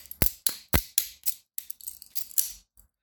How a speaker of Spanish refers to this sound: Para los que no saben que es una navaja mariposa, es una navaja, este, pues que se abre y se cierra. Y que suena algo así, mira.